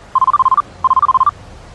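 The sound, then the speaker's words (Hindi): A phone rings with two quick bursts of rapid electronic beeps, each a string of short, evenly spaced tones, separated by a brief pause, as a call is being added to a conference call. The ringing is clear, with no talking. “conference पे ले रहा हूँ एक सेकंड भैया”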